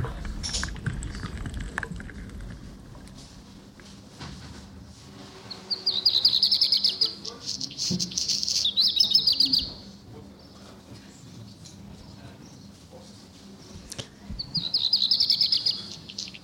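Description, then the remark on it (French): A black redstart sings three short, bright phrases separated by pauses of several seconds, fairly clear, over a faint low rumble of background noise. “Et nous commençons l'émission du jour avec le chant du rouge que noir”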